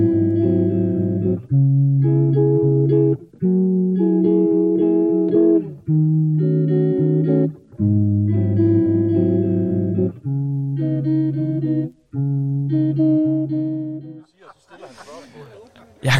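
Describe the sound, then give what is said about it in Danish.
A short 17-second jazz piece as an interlude: one melodic line of sustained, held notes in short phrases separated by brief pauses, steady and fairly loud, ending in a softer, noisier tail. “Vi tager lige et øh, 17 sekunders jazz-stykke her, og så øh, vender vi tilbage på den anden side.”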